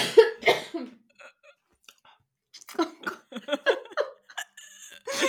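A woman who is ill coughs: a few harsh coughs burst out at the start, then after a short pause a series of throaty, uneven coughing and breathy sounds follows, loud.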